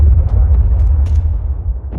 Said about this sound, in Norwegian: For første gang så vi dem dundre ned i gatene og bygningene i en by, Bagdad, og etter et sterkt lysglimt hørte vi lyden av eksplosjonen. Flammer og røyk og støv drev over byen.